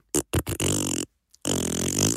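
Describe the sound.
A voice imitates wet fart noises heard from a toilet while waiting in a queue: three short sputtering bursts, then two longer, buzzy, vibrating raspberry sounds separated by a brief pause.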